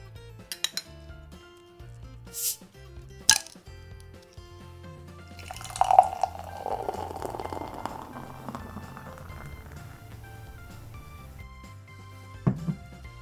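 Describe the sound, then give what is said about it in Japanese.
A few sharp clinks of glass, then a bottle cap pops with a brief fizzing hiss and stout is poured from the bottle into a glass for several seconds, over a steady low hum. “でねスタウトもね久々なのでねもうちょっと楽しみなんでね開けて飲んでいきたいと思います”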